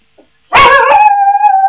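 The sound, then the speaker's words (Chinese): A small dog lets out a sharp bark that stretches into a high, wavering howl, loud and sustained over a second. “看见了吗？它要叫了吧？哎，台长一调你的灵性，这个小狗就看得见。”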